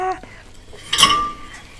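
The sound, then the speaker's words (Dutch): A transparent glass jar clinks sharply once as it is handled, a bright ringing tone that lingers briefly before fading, with a faint earlier tap. “Ik weet niet wat het potje is. Dit is van glas.”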